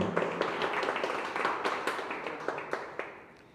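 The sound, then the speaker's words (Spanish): A short burst of applause from a small group, many quick overlapping claps at a steady moderate loudness that gradually thins out and fades toward the end, with no voices. “Un aplauso desde México.”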